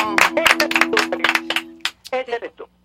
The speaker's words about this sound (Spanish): Muchas gracias. Realmente te doy Un aplauso para eso. Gracias.